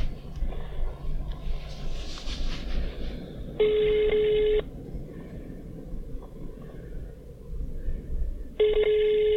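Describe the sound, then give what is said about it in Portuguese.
A phone's ringback tone plays over a speakerphone held up so the group can hear, two steady electronic bursts about five seconds apart against a noisy, rumbling background. “Mas mete mais perto daqui para a gente ouvir.”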